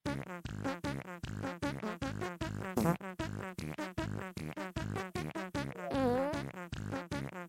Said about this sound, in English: And with that, let's do the celebratory dance to the fart song.